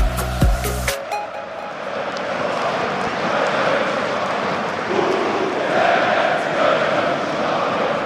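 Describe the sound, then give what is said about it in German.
A large crowd of 1. FC Köln fans chants together in the Südkurve stand after the final whistle of a match against Leipzig, a dense, steady roar of massed voices rising and falling in pitch for several seconds after a brief loud burst at the start. “Ja, schön gesungen, oder? Von der Südkurve.”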